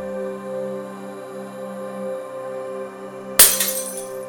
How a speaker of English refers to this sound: Glass shatters somewhere down the hall.